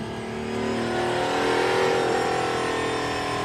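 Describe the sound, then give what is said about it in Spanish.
Max Verstappen's heavily tuned sports car revs up and accelerates in Nice, its loud, steady roar climbing in pitch over a few seconds before holding at a high, sustained whine, with no voices. “Dos millones de euros cuesta el cochecito, pero su compadre, bueno, vamos a poner el video. Mira, ahí van.”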